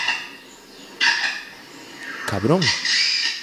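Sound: small birds chirping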